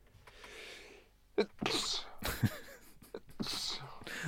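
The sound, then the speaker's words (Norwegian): A sharp sneeze bursts out, preceded by a quick breathy inhale, with some soft breathing and murmuring voices around it. “Jeg hørte nøys for den som ikke ja, hørte det.”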